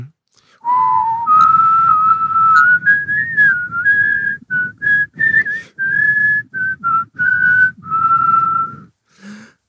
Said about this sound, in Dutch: we gaan dus het Wilhelmus fluiten